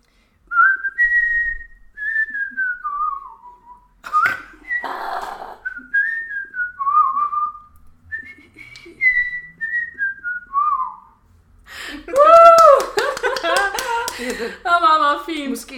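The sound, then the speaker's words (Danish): A person whistles a bouncy pop tune, the melody gliding up and down in short phrases, then breaks into laughter and talk near the end. “…, som er en sang, hvor han fløjter”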